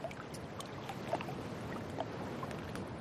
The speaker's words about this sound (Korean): 처음 이 집에서 자던 날 새벽, 문 밖에서 가깝게 들려오는 일정한 리듬의 소리에 눈을 떴다. 문을 열고 나오자 발목까지 차오를 듯 가까이 밀려온 밀물이 대돌에 부딪혀 찰랑거렸다.